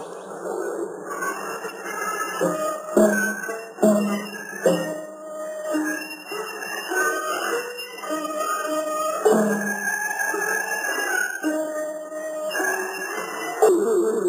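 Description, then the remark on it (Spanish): An eerie, continuous collage of thin, wavering tones and distorted, ghostly wails drones on with shrill high-pitched ringing, rising and falling in short swells without any clear speech: a psychological-warfare tape mixing voices, sounds and music aimed at Vietnamese fighters, playing on the belief that those not buried in their homeland wander for eternity. “Es una mezcla de voces, sonidos y música que atacan la creencia vietnamita de que aquellos que no fueron enterrados en su tierra natal vagarían por la eternidad.”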